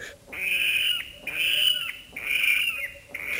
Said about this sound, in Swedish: Och precis när jag stannade och lyssnade på detta så kommer det en äldre man och stannar och säger Vad är det som händer? Vad är det? Så sa jag, ah, det, det är ingen fara, det är bara vattenrallar.